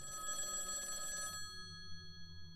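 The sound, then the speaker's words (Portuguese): A telephone rings with a bright, trilling electronic tone for about a second, then cuts off, leaving a faint lingering hum. No voices, just the single ring burst at moderate volume. “E aí eles tiveram que esperar a análise da polícia e finalmente o telefone com a resposta toca de novo.”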